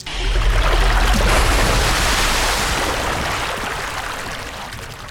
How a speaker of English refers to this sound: I wiped it from my eyes, took an arrow and shot it. It pops and turned into water, filling the floor and running over the ledge.